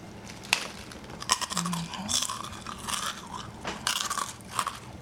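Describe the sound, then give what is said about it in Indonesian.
Crisp crunching and chewing of Garuda Rosta peanuts, with sharp irregular bites and crackles followed by softer mastication, loud, with no talking. “Paling isi channel gue adalah untuk ASMR gue makan kacang gitu jadi hmm, kalian bisa dengerin”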